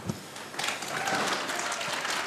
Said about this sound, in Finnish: Yleisö on hyvin mukana tässä tentissä. Jokainen neljästä ehdokkaasta on saanut aplodit. Kello on 12.31. Radio Suomen kuuntelijat olette mukana Helsingin Narinkatorilla auringon paisteessa kylmässä tuulessa